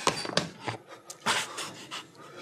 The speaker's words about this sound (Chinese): 那你俩睡着了，都打呼噜了